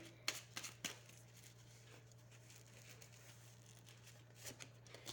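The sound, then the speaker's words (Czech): Soft, quick card snaps and flicks come in a short cluster at the start, then a few more after a pause, as further cards are laid out in a card reading. Everything is quiet over a steady low electrical hum. “Eh, co se týče rodiny, rodinného kruhu, ještě hodím další karty.”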